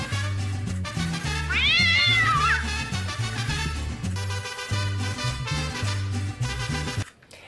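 A single drawn-out cat meow rises and falls over steady, bass-heavy background music, loud, before the music cuts off near the end.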